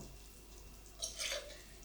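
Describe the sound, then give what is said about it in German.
A short, soft splash of boiling-hot water being ladled into a measuring cup, one of about three ladlefuls, a brief pour of about half a second against a quiet background hum, with no voices. “Also ich habe jetzt hier quasi in so einem Messbecher habe ich jetzt drei kochend heiße Wasserdinger reingemacht.”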